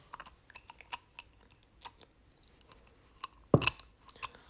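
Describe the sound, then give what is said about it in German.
Someone eating at a meal chews wetly and noisily with repeated lip smacks, a steady run of small clicky mouth sounds, with one louder smack near the end. “nicht schmatzen.”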